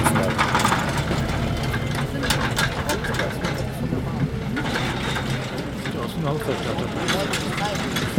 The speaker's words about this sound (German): Und hier fährt nochmal schnell der Traktor zurück und holt Schepper die zweite Hälfte der Starterbox ab, weil es ziemlich viele Pferde waren